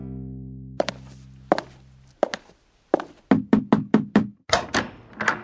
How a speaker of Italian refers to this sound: E allora mi viene spontaneo, visto che abitiamo in due case diverse ma adiacenti, salire la scala che separa i nostri pianerottoli, bussare alla sua porta e chiederglielo.